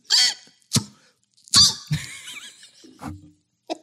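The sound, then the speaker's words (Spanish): A person mimics a squirrel's sharp call: a few explosive, breathy bursts followed by a squeaky, high-pitched chattering cry, then short clicks, all fairly loud. “Sonido de la ardilla.”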